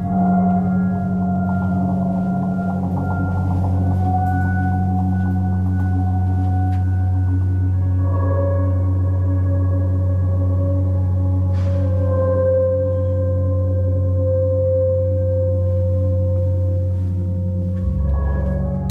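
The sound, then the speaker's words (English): Ambient installation music played through four speakers in the corners of a darkened room: layered, sustained drone tones, a strong low hum beneath slowly shifting higher pitches, holding a steady, fairly loud level throughout with no voices. “Here's a clip I actually recorded uh, um, of uh, uh, of the piece”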